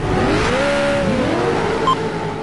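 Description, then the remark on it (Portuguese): The engine of a software-simulated racing car in a video racing game, driven around a track by a controller, revs steadily. Its pitch climbs, dips and rises again in a loud, continuous drone, with no one talking. “Tenho uma pista tenho um carro simulado, tudo software, e tenho um controlador.”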